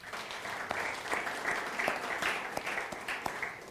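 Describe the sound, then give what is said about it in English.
A crowd claps steadily for a few seconds for the worship team and the people who set up beforehand, a dense patter of many hands with sharp individual claps poking through, holding at a fairly even moderate loudness throughout. “Can we just give them a clap also?”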